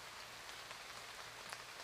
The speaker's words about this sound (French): Les nuages s'épaississent, la nuit s'installe. Il se met à pleuvoir.